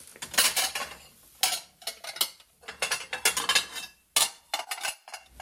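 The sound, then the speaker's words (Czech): Plates and glasses clink and clatter repeatedly as they are counted, handled and stacked for a celebration order at a dish rental service, a busy run of sharp ceramic and glass knocks with brief pauses, no voices. “U nás funguje taky půjčovna nádobí, takže teďka zrovna tady připravuju pro jednu slavnost, kde si od nás objednávají talíře a t, e, skleničky na e, oslavu, takže jim to napočítáme a pak oni si to vyzvednou tady v takových přenosných krabicích”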